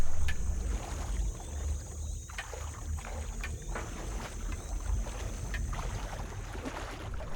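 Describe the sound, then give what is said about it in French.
Water laps and slaps against a hard surface in irregular splashes at a washhouse near a family house on a hot summer night, over a steady low rumble of wind and moving water. No one speaks. “Une nuit, elle entendit de drôles de bruits sorte de clapotis et de claquements, semblant venir du lavoir situé non loin de la maison familiale.”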